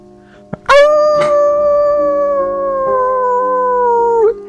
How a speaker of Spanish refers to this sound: Un aullido que no parece natural seguido de varios que le acompañan.